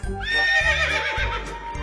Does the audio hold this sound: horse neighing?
yes